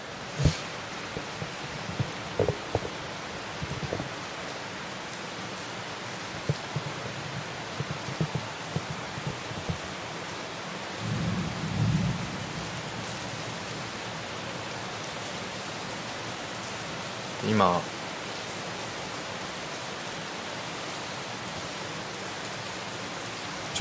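Steady heavy rain from a thunderstorm in Singapore hisses evenly throughout, with a few scattered louder taps and a brief low rumble of thunder partway through. No voices are heard.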